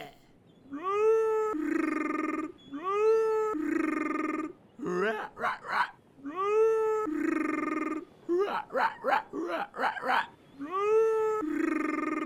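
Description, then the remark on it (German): A voice imitates the mating call of a fictional southern Californian waltz crab: loud, cat-like wails that rise in pitch, each followed by a held tone, alternating with choppy warbling bursts, repeating about three times. “Mit dem Brumpfschrei der südkalifornischen Walzerkrabbe wird sich mein Körbchen in 0, nix füllen.”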